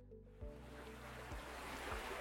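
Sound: ocean waves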